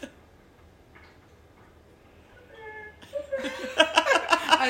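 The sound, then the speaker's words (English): An automated cat feeder gives a brief electronic tone, then whirs into rapid mechanical ticking and rattling as food drops out for a cat, growing louder, with someone laughing over the end. “you are having to hear my automated cat feeder feed my cat”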